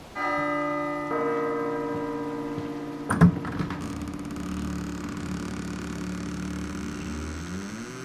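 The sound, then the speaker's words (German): A bell rings with steady, sustained metallic tones that shimmer and overlap, broken by one sharp louder clang partway through, while a low rumbling hum rises underneath toward the end. “Firlefanz, ich bimmel jetzt. Aber leise.”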